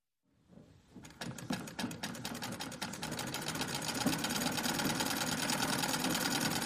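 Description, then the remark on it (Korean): A sewing machine at home, being used to sew lunch bags, table napkins and chair covers, starts up and runs steadily, its rapid needle clatter forming a dense, even mechanical rattle that grows slightly louder and holds constant with no voices. “그날부터 자스민은 매일매일 우리 집에서 야채 봉틀로 도시락 주머니도 만들고 식탁에서 사용할 냅킨, 의자 커버 등을 만들기 시작했다.”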